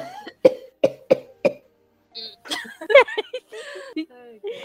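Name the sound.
coughing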